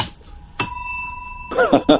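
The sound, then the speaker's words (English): A small hand bell, a real thanks bell, is struck once, its bright ringing tones sustaining and slowly fading, followed by a brief burst of someone talking. “There's there's the actual bell. It's a real Thanks bell.”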